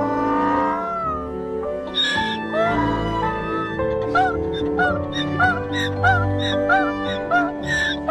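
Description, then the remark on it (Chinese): A donkey brays loudly on its own while its owner strokes it, starting with long, strained harmonic cries and breaking into a rapid, rhythmic run of wheezing hee-haw pulses that repeat about twice a second. “本来呢，这是一个特别悲伤的故事，但是一听到驴叫，我就没忍住啊，没忍住。”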